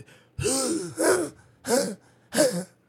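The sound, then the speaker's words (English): A person imitates the croup cough of a child of about two, four harsh, barking bursts like a seal, loud, with brief pauses between each rough, hoarse bark. “Um, he was about two years old, a year and a half around there, and he got something called croup. So it, it's a cough that happens, and it sounds like a barking seal.”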